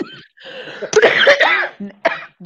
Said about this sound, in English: now I'm coughing. I'm coughing now.